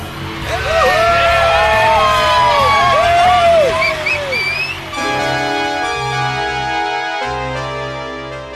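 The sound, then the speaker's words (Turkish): A loud rock concert crowd cheers and yells with overlapping whoops and shouts for about five seconds, reacting to the band's singer shouting from the stage, then gives way to sustained, steady musical tones that carry on to the end. “Tanrı'ya ettiği küfür ve seyircilerin tepkisi beni dehşete düşürmüştü.”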